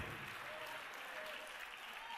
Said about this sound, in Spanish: Y algunos ni fuerza tienen para aplaudir.